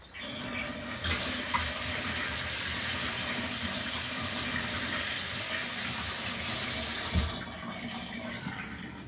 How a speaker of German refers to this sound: Wasser raus. Lappen rausspülen.